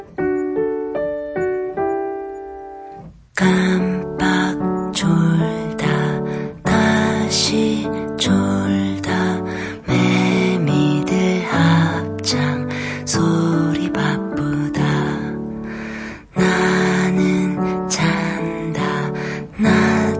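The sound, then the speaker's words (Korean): A pop song played on the 1 a.m. Korean radio show Gamseong Yahaeng, Eumak-ui Sup opens with a few seconds of soft, sustained instrumental notes, then a full band with steady drums comes in loud, playing continuously to the end. “음악 한 곡 듣고 와서 여러분들 이야기 본격적으로 들어볼게요.”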